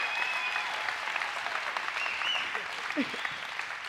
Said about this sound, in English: Now we're going to awkwardly make all the Davidson College students that have never been here stand back up. All right, so y'all stand up. That's what I'm talking about. Y'all make some noise from them.